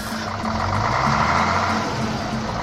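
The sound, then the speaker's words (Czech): The engine of a Karosa camper bus idles steadily, a continuous low rumble with a faint repeating hum and a broad hiss over it, holding a constant loudness throughout with no voices. “Obytný autobus Karosa, pokřtěný jako zemák, zakoupili sociální demokraté za 250 tisíc korun v bazaru.”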